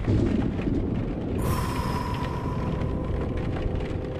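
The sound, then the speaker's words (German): Steady rain hisses over a deep, continuous rumble of thunder. About a second and a half in, the rain grows brighter and fuller, with a faint thin whine running underneath. “Ja, lasst uns bei dem Regen ein wenig hier drin entspannen.”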